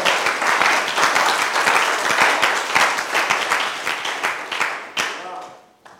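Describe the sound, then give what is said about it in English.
A crowd claps for God, loudly and continuously in dense, overlapping applause, with a few sharp individual claps standing out, before fading off toward the end as voices murmur underneath. “Clap for God.”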